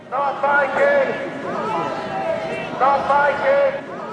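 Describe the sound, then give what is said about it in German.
Hundreds of anti-monarchy protesters outside the cathedral in York, Britain, in early April chant "Not my King" in unison as King Charles steps out of a limousine, the short phrase rising loudly twice with a brief lull between, many voices blending together outdoors. “Hunderte Gegner der Monarchie haben sich Anfang April dort versammelt. Die halten Plakate hoch, rufen Nicht mein König”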